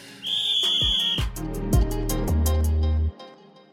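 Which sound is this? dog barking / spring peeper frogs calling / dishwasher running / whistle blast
whistle blast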